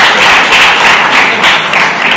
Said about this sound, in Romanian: Aplaudați, dar nu știți ce aplaudați.